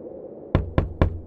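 Three firm knocks on the door of a house in a quick, even rhythm, fairly loud, each a solid thud with a short ring, after a moment of quiet room tone; the knocking grows harder each time.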